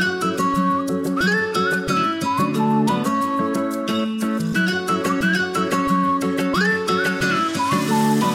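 A whistled melody with short upward slides rides over a steady, loud pop backing track, repeating the same phrase a few times with no singing.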